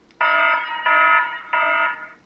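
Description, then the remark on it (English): Three loud electronic alarm beeps in quick succession, a timer's alarm sound being previewed, each a harsh buzzing tone with strong harmonics, followed by a fading tail; clear with no talking. “Would you like the timer to play an alarm sound or the radio? Alarm sound.”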